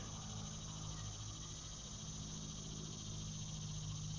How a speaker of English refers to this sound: I hear an airplane in the distance, cars passing on the road, the cicada.